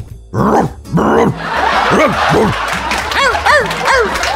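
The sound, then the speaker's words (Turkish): A person imitates a dog barking, voicing a run of about eight loud bark-like yelps in quick succession, with the later ones pitched higher and sharper. “Hemen havlamaya başladım.”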